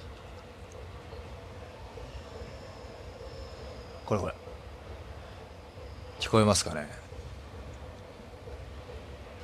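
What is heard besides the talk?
train passing by outside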